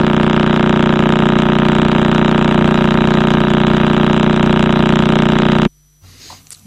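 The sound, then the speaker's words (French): The rotation of the Crab pulsar, rendered as sound: a loud, steady, low buzzing drone, rough and motor-like, holding constant for several seconds before cutting off abruptly into near silence. The pulsar is 20 to 50 km across and spins 25 times per second. It lies at the heart of a nebula whose explosion the Chinese saw in 1054. “Ce pulsar, lui, fait 25 tours par euh, seconde sur lui-même.”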